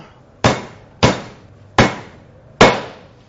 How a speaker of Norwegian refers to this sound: Istedenfor å bruke en hammer som du er nødt til å slå 15 ganger, bruk en panne.